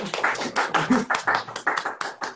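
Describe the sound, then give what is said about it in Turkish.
Audience applause: a steady patter of many hands clapping, with rhythmic bursts rising and falling throughout, fairly loud and with no one speaking over it. “Alkış alalım.”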